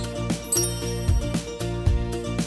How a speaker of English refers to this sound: You will know when to start listening when you hear the chimes ring like this.